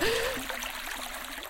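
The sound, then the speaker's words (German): A stream trickles and splashes steadily, a continuous watery babble with no pauses, at moderate volume. “Ich habe mal gehört, dass äh, Biber es nicht mögen, wenn es plätschert.”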